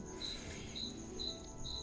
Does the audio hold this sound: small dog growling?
no